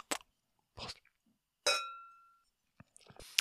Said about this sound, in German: Lass uns erstmal anstoßen. Auf die Liebe. Den Motor. Und Antrieb. Für. Alles. Prost, Süße, ne?